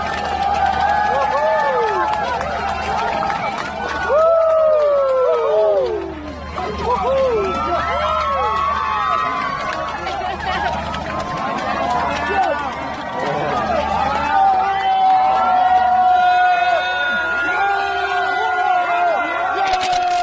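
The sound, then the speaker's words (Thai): A large crowd cheers and shouts continuously for divers, medical and rescue teams walking out of the Tham Luang Khun Nam Nang Non cave entrance on the night of July 10 after the rescue of all 13 Wild Boars team members, many voices overlapping in loud excited whoops, with a brief dip before swelling again. “ขอเปิดรายการ i n s i ซต์อาเซียนกันด้วยเสียงแสดงความดีใจ ขอบคุณเสียงเชียร์ นักดำน้ำทีมแพทย์ทีมกู้ภัยที่เดินออกมาจากบริเวณปากถ้ำหลวงขุนน้ำนางนอนเมื่อวัน เมื่อคืนวันที่ 10 กรกฎาคมนะคะ ภายหลังภารกิจกู้ภัยเสร็จสิ้นสามารถช่วยทีมหมูป่าทั้ง 13 คน”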